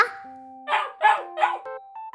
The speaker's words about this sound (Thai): แช่หันไปตามเสียงเห่า ก็เห็นเจ้าลูกหมาวิ่งดีใจอยู่ในบ้านของคุณยาย